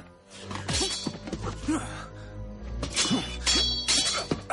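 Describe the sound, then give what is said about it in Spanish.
Sharp metallic clangs ring out repeatedly as Don Quixote and a knight, having drawn their swords, strike each other in a fight, mixed with effortful grunts and groans from the fighters, loud. “Los dos desenvainan sus espadas y empiezan a luchar.”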